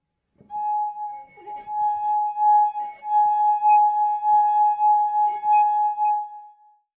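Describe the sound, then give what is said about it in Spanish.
A sustained, pure singing tone from a finger circling a wine glass rim, steady and ringing for several seconds with faint harmonic overtones and slight rubbing scrapes, then fading out. “Seguramente todos hemos tenido en alguna fiesta una copa con líquido enfrente y pasando nuestros dedos por el borde generamos un sonido muy particular e hipnotizante, ¿no?”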